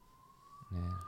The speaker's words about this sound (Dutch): Wie, eh, wie komen ze halen trouwens? Van wie, de sirene op de achtergrond? Ik denk niet dat ik het ben.